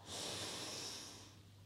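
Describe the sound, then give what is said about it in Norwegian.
A long, steady inhale drawn in through the nose as part of a breathing exercise, airy and hissing, sustained for over a second before tapering off, with no talking. “Pust godt inn med nesa.”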